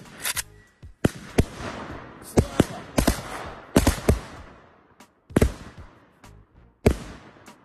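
Fireworks set off by a man as he shouted go off in an irregular burst of sharp, loud cracks, about a dozen bangs in quick succession like gunfire, each trailing a brief crackling echo.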